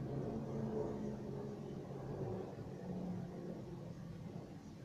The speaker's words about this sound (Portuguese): Pode passar, avião.